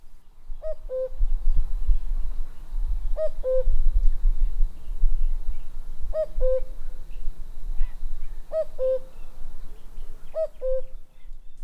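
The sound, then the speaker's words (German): A common cuckoo calls its two-note cu-coo five times at a steady pace, each pair falling in pitch, clear over a low background rumble. “Und jetzt hören wir noch kurz in den Gesang des Kuckucks rein.”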